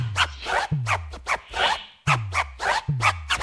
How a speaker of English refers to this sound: … scratched that sound on …